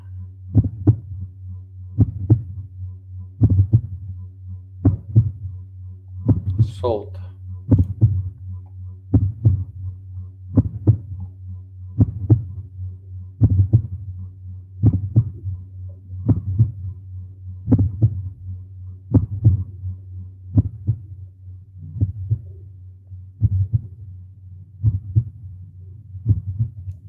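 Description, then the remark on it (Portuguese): A muffled heartbeat as heard inside the womb, steady rhythmic thumps about once a second over a continuous low whooshing hum, enveloping, with no voices. “Recordando os sons que te acompanharam no início da tua vida.”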